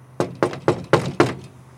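Five firm knocks on a front door by two reporters at 8 o'clock in the morning, evenly spaced in a quick rhythm, fairly loud, each a dull thud with a short ring-out, no voices.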